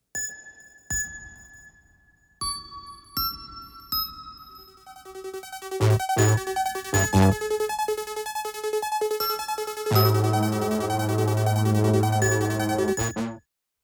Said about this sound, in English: In addition to this fluttering synth, the fuzzy bass stabs from the intro return to the mix. We also hear a new bell like synth playing a simple accent melody.